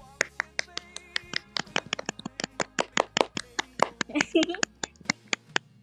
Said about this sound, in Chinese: 咱俩一起给九万哥鼓掌啊！我数三二一，好吧？